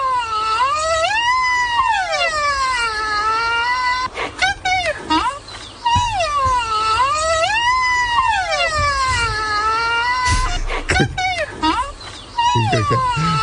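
Baby rhinoceros calls: loud, close, high-pitched whining squeals that rise and fall in long wavering, siren-like sweeps, repeated several times with a few short sharp yelps in between.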